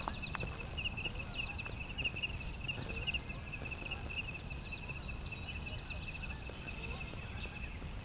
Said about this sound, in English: We're in a meadow here in the south end of Beverly Swamp. Lots of crickets here too.